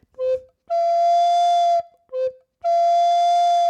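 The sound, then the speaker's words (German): Bright, breathy tones from two soprano recorders play a short note followed by a long sustained one, twice over, imitating animal calls. No voices are present. “Imitation der Tierlaute, die kombiniert, das macht ein Komponist, der Herr Franz Müller-Busch, in seinen acht einseitigen Stücken für zwei Sopranblockflöten”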